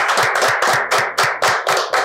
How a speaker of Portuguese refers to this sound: O que, que a galera merece hein? oh, rapaz. Oh. Umas palmas. Salva de palmas.